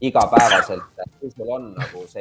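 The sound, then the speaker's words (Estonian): A single sharp sneeze bursts out at the start, and then a man carries on talking in Estonian at a steady pace. “tervist, tervist”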